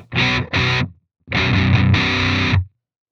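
Electric guitar through a gritty DS-1 distortion pedal, presumably modeled on the Boss DS-1: two short chugged bursts, then a longer sustained phrase of buzzy, saturated chords that stops abruptly. No one speaks.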